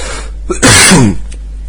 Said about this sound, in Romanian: Mă scuzați că tot uh, tușez, tot îndreg vocea, tot mă... Uh, probabil pe cale de a răci.